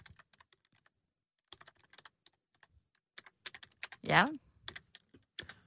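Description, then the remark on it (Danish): Rapid clicking of computer keys in uneven bursts as someone types an email applying for a job as new content director, with a brief spoken word partway through interrupting the typing before the tapping resumes. “Så skriver du en mail.”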